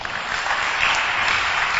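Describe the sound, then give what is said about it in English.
An audience claps for Jesus together in a dense, steady wash of applause that holds at an even level without breaks or distinct individual claps, and nobody speaks. “Clap for Jesus.”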